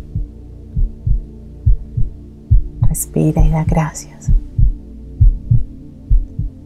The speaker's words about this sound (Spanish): Continúa ahí con tus manos en tu corazón, escuchando los latidos, con tus ojos cerrados. Vas a dar gracias por esos latidos Estás escuchando. Estás visualizando en un instante toda tu vida a través de ese latido.